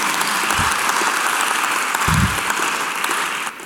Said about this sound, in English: Ah, let's give God a better clap offering than that.